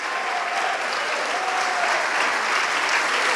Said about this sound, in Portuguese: Vamos aplaudir, sim. Vamos aplaudir nos seus pecados, você não morrerá mais.